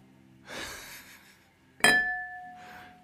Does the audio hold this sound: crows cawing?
no